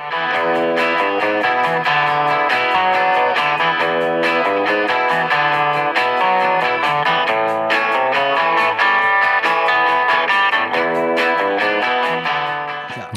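Two electric guitars playing together on their own, one picking a lead line over the other's steady strummed rhythm, with a bright, slightly driven tone at a constant loud level and no voices.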